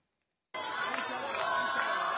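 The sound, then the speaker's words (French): After a half-second of silence, a crowd cheers loudly and steadily: a dense, continuous roar of many voices with scattered shouts rising out of it. The crowd, waving many Israeli flags, cheers the arrival of 17 released hostages. “C'est sous les acclamations et une foule de drapeaux israéliens que les 17 otages sont arrivés hier.”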